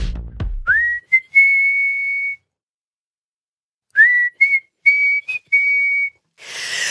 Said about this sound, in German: Pfeif doch noch jetzt noch mal einmal für mich ….